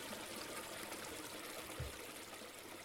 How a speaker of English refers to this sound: Why are you uh, filling up the tub with water?